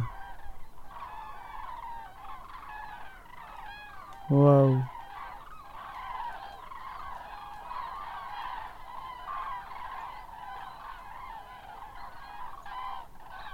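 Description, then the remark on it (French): A large flock of cranes flying just overhead, circling to find rising air currents, keeps up a steady chorus of overlapping trumpeting calls, while one person gives a single loud, brief exclamation partway through. “et on entend les grues. elles sont prêtes, elles vont passer juste au-dessus.”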